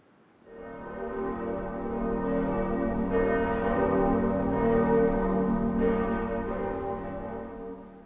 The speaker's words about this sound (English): Church bells can remind us of the passing of time or perhaps our own mortality.